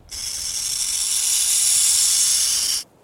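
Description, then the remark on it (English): A burrowing owl gives a sustained, rattlesnake-like hiss, harsh and steady for nearly three seconds before cutting off abruptly. Loud, with no voices. “Because, as well as its double hoots and other calls, the burrowing owl is known for this hair raising sound.”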